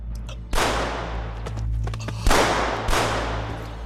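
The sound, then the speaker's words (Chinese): Three loud, sharp gunshots ring out at uneven intervals, each trailing off in a long hissing decay, over a steady low hum with no voices. They are gunshots in a Chinese-language radio drama, a sneak shot fired at a character. “好你个罗宝奎，你敢打老子黑枪！”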